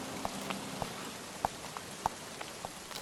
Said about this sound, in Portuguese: E esta chuva horrível está a dar cabo do meu cabelo